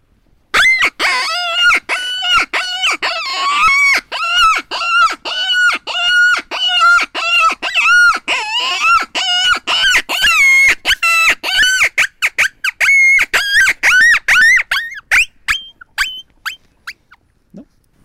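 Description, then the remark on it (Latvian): A Nordic Mini Predator hunting call blown in a fast series of high, squeaky, yelping notes, rapid and rhythmic, loud at first and then breaking into shorter, sparser squeaks that trail off toward the end. “Tālāk, Nordic mini predatori. Pirmā muzicēšana šāda bija.”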